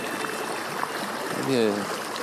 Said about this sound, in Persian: صدای آبی میآید به سمت رودخانه حرکت میکنیم در مسیری پیچ در پیچ